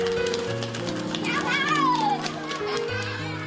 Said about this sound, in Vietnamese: Tất cả xong xuôi cũng là lúc hơn 30 đứa trẻ ở biên giới Việt Nam Campuchia ùa đến lớp học.